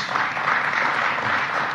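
Audience clapping, a dense and steady patter of many hands that holds at an even loudness for the whole couple of seconds, with no voices on top.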